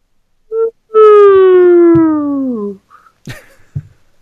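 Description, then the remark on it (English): A slide whistle glides steadily downward in one long, loud, sustained note lasting about two seconds, after a brief short toot, followed by a few faint clicks and knocks. “I'll, I'll, I'll, say play while you're you're coming down off your whistle.”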